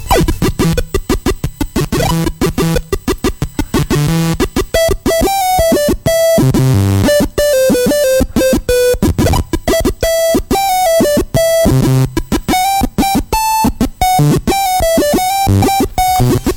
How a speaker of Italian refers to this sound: Io invece e... volevo farvi sentire o giovani ascoltatori quelli che, quello che noi fortunati possessori di un PC nel 1990 potevamo sentire ogni volta che lanciavamo Monkey Island. Questo era il suono che usciva dal mio PC speaker. Sentite qua.